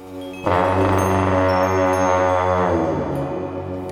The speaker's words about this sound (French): cette production met en relief les sonorités rugueuses d'une longue trompe tibétaine appelée Dongchen.